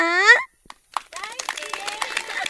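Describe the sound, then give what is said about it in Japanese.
At an outdoor stargazing tour on Ishigaki Island under a starry sky, an audience relaxing in hammocks and reclining chairs breaks into scattered clapping after a brief spoken call and a short pause, the applause continuing steadily with voices chattering and calling out among the claps. “会場にはたくさんのお客様がいらっしゃってます。皆さん、聞こえてますかパチパチ。”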